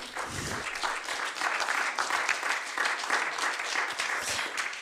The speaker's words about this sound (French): Oui, on peut applaudir.